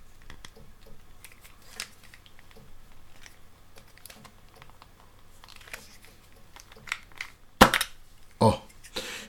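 Faint clicking and scraping as a nail file is gripped by its tip and twisted to the left inside its reusable case, followed by two sharp pops as it is pulled free with force, with a vacuum-like feel. No one speaks.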